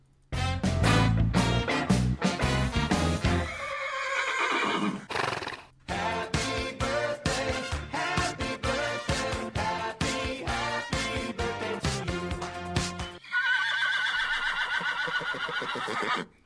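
Several horse whinnies and neighs play in quick succession, loud, each a shrill quavering call with breathy snorts between them, no talking over the sounds.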